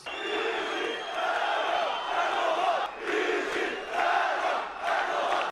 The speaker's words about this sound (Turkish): Sayın Bahçeli, Diyarbakır'da atılan Serok Erdoğan sloganlarını duydunuz mu? Cumhurbaşkanı Erdoğan için Diyarbakır'da yükselen Serok yani başkan sloganlarını Gelecek Partisi lideri Ahmet Davutoğlu Cumhur İttifakı ortağı Bahçeli'ye sordu.